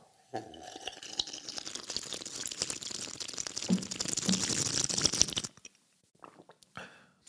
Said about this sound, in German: Ich nehme mal kurz einen Schluck Wasser.